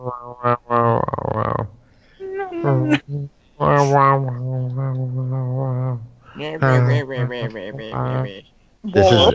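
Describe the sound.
A person's voice mimics a cat, letting out a run of drawn-out, wavering meows and yowls, fairly loud, with brief pauses between them and no ordinary talking.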